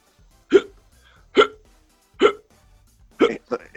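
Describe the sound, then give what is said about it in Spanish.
A series of sharp, abrupt hiccups, about five in total, evenly spaced at first and then two in quick succession at the end, heard clearly with no talking. “Eso es hipo. ¿Qué, le pasa? Tiene hipo, tiene hipo.”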